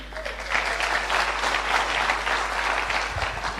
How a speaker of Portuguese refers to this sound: assim que eu estou muito contente e quero pedir um aplauso para vocês.